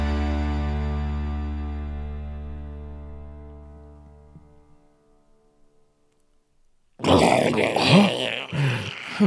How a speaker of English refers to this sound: That's a walrus sound.